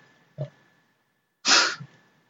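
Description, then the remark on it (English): A sleeping dog snorts twice: a short, low grunt followed by a longer, louder breathy snort, with no talking. “You hear that? It's the dog.”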